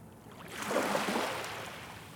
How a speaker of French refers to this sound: Des vagues sur une jetée. Dans le petit port derrière Malo. Sous un ciel gris.